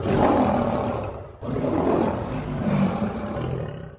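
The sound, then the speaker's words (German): A lion roars loudly, two long, deep rumbling roars back to back, the second one drawn out with a gritty, throaty growl. “Gut gebrüllt, Löwe.”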